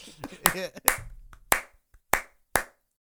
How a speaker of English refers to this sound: This is just gonna be a running joke that every time we try to do the clap, we just can't do it. we can't, we fail at clapping. We can't do it. It's impossible.